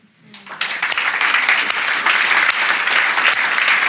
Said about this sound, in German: Und wollen wir mal denen Applaus geben, die hier den, den Parkplatz geräumt haben?